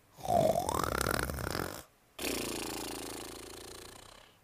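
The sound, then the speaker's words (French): A voice imitates a gardener snoring very loudly: two long, rough, rumbling breaths, the first lasting nearly two seconds, then a brief pause before a second sustained snore. “Après ce bon repas, le jardinier se rendormit et se remit à ronfler. À ronfler très fort.”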